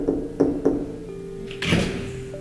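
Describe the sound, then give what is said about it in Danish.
Three quick knocks in a steady rhythm on a tank where a woman is lying, after an hour, followed a moment later by a brief scraping rush as the door seems to slide or swing open. “Da der er gået en time, banker jeg på ind til karret, hvor Julie ligger.”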